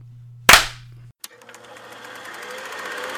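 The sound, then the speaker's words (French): One loud, sharp hand clap rings out with a short decay, followed by a much fainter click, then a steady mechanical whirring rattle carries on to the end. “Allez, on fait un deuxième et troisième claque. 1, 2, 3.”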